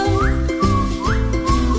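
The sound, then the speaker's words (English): Someone whistles a bright, sliding melody with quick upward swoops, over steady rhythmic backing music with a regular thumping beat. “Whistle up high, now whistle down low.”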